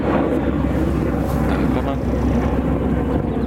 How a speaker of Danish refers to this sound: Der er nogle ude med helikopter. Ja det er der. Det er nok dem, der øh, holder øje med. Og... det, er vores, det er jo vores filmhold.